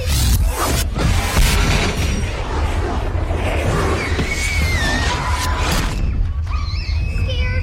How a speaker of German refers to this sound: Plötzlich ertönt ein wummerndes Geräusch und die Babysitterin kriegt einen Schlag verpasst. Der Dämon ist da.